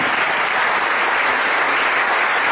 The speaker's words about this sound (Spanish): Levántenme la mano. Para ustedes un gran, gran aplauso. Para ustedes la bienvenida de estar aquí.